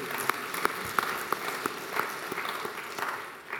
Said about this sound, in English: So much gratitude for our ushers and greeters who welcomed us this morning. And gratitude for the, yes, let's clap for them too.